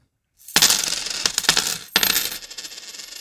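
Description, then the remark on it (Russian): A bright metallic jingle of coins, with a burst of clinking at the start and a second shower of coins about a second later, ringing out and fading. No talking. “Вот этот звон означает, что нам немножко а, повезло и э, нам перечислили немножко денег, на которые проект существует.”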